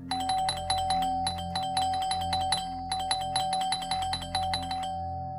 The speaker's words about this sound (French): Ces maudits gosses, ils pouvaient pas attendre une minute. Ils allaient casser la sonnette s'ils continuaient à l'agresser comme ça.